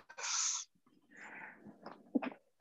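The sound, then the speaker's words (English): A single sharp, hissy sneeze bursts out, followed by a few seconds of quieter snuffling breaths and small nasal sounds. “Uh, I am going to sneeze in a moment.”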